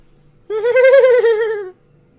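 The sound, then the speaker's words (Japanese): A voice imitates a donkey's bray with a single loud, drawn-out wavering cry lasting just over a second, rising and then trailing off against a quiet background. “ロバは、”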